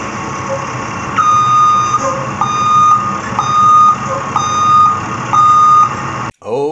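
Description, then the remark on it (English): A bus's reversing alarm beeps five times in a steady, evenly spaced rhythm in a parking lot, loud over a rumbling idling engine, ending with a brief voice at the very end. “Okay, we've got the bus out, fired up, and ready to just back on over me.”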